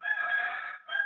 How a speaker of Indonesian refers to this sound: berisik ya suara ayam ya apa berisik ya suara ayam ah nggak ngerti berisik ya suara ayam Iya nih ayam